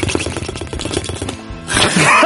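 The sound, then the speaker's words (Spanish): A voice imitates the rapid gurgle of bubbling hookah water, a quick stuttering burst of loud pulses lasting about a second, followed by a rush of breathy noise. “Yo he hecho el sonido de burbuja, tío.”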